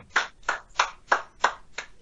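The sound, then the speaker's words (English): Six hand claps right up against the microphone, sharp and fairly loud, landing in an even, steady rhythm about three per second, with no voices in between. “i would like not be in the mic clapping.”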